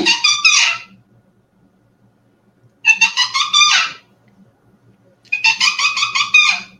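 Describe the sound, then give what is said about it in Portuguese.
A bioinstrument, a clay horn with a gourd and balloon, imitates a caracara hawk's call: three loud, harsh, raspy squawks, each lasting about a second, separated by short silent pauses, with faint low rumbling underneath. “Aqui eu tenho um, um gavião, cancão.”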